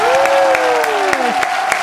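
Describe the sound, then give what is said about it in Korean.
An audience applauding loudly and steadily for about two seconds, dense clapping with a few sharper claps standing out, while a sustained vocal tone slides slowly downward over it. “자, 그리고 이제 요거는 리얼 박수 나가야 됩니다.”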